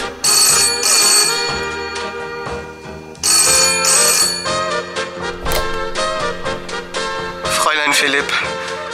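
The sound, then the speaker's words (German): A telephone bell rings loudly in two shrill bursts separated by a short pause, with a bright metallic clatter, followed by a lingering jangly tail with other sounds underneath. “das Telefon schrillt.”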